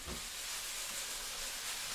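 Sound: mushrooms sizzling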